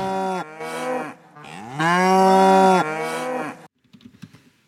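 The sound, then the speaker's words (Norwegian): Loud, drawn-out moos from one of the cows of a farmer from Larvik run together for over three seconds, harmonic and rising then falling in pitch, followed by faint scattered rustling. “fra Larvik før en av kuene til slutt.”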